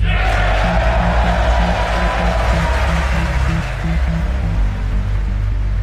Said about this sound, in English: That's President Donald Trump to a huge round of applause at the State of the Union address